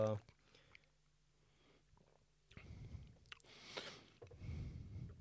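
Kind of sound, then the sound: food or drink, slurping wine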